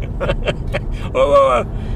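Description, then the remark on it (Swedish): A steady low rumble of a car driving, heard from inside the cabin, running throughout while voices and a brief tonal vocal sound rise over it. “Fast du kör ju bilen. Det är väl den viktigaste maskinen just nu tror jag.”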